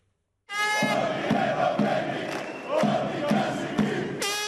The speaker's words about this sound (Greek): Με συνθήματα υποδέχθηκαν τον Αλέξη Τσίπρα οι απολυμμένοι από τα εργοστάσια λιπασμάτων και πετρελαίων στην Καβάλα, όπου πραγματοποιεί περιοδία.